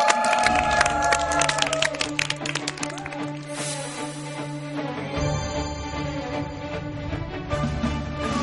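An audience applauds steadily in a dense patter of claps as the next lecturer is welcomed onto the stage, strongest at the start and thinning out, while upbeat walk-on music plays loudly underneath throughout.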